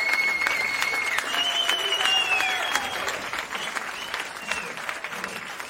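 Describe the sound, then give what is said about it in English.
A large crowd claps steadily and loudly for several seconds, with shrill whistles and cheers rising over the dense, continuous applause, with no talking over it. “You should to let the audience keep going, man. They are about to start chanting.”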